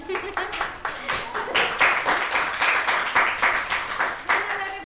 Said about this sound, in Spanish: Bien, aplauso para los intérpretes.